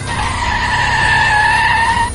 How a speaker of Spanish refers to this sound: No puedo hacer otra cosa que frenar.